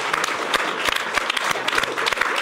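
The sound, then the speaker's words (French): An audience bursts into applause welcoming a caricaturist who draws live, a dense, irregular patter of many hands clapping at once, holding steady at a fairly strong level throughout with no voices rising above it. “Eh ben voilà, c'est Ignace qu'on peut applaudir bien fort.”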